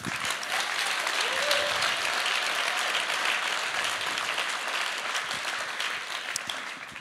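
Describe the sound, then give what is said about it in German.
Sustained audience applause, a dense, steady wash of many hands clapping at an even loudness for the full stretch, slightly easing toward the end, with no voices standing out. “Deswegen weiß ich, Gott hat Großes mit dir vor, deswegen ist es dein Applaus.”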